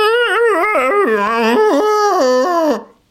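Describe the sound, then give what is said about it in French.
A person's voice imitates elephants trumpeting as a jingle for tweets: a loud, wavering, mid-pitched call that rises and dips in quick repeated swoops for almost three seconds before breaking off. “À ce sujet, cependant, euh, car je reçois de temps en temps des, petits tweets euh, ici et là, jingle tweet, ce sont donc les éléphants qui, qui barissent.”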